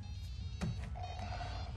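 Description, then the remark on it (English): A phone rings faintly with a steady electronic tone that starts partway through, just after a sharp knock, over a constant low rumble of background noise. “Oh shit, that's her.”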